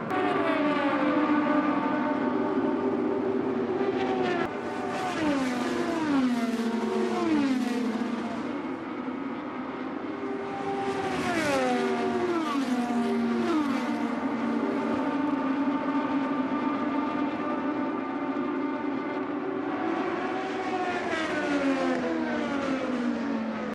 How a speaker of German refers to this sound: Und weil die Sehnsucht so groß gewesen ist nach echtem Motorsport, hier nochmal wieder ein paar echte Motoren-Sounds direkt aus dem Texas Motor Speedway.